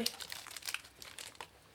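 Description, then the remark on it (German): Irregular crinkling of the paper wrapper of a chocolate stick, a quick series of crisp, rustling crackles that flicker on and off over a couple of seconds at a fairly soft level. “Das ist ein Schokostängel. Aber ey, gib's ihr nicht mit dem Papier.”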